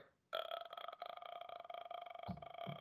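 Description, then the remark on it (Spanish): A voice makes a long, rattling vocal-fry croak, fairly loud, a crackling guttural drone that lasts a couple of seconds, imitating the sound a ghost makes when disappearing in a horror film, with little air passing out like bursting bubbles. “O sea, esto es el... fry.”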